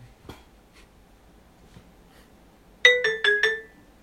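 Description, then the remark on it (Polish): A short snippet of the Nokia ringtone melody, four quick bright electronic notes played clear near the end, after a few seconds of near silence with faint clicks. “No macie to? Dzwonek z Noki.”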